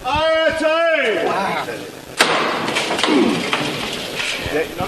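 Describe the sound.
A voice calls out, then a single sharp, heavy thud as a procession float (paso) is hoisted by its bearers as the procession leaves a church, followed by a murmuring crowd and rustling movement.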